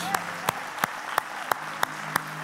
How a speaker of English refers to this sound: Let's give this King Jesus the, the applause that he deserves. Let's give this King Jesus the praise that he deserves.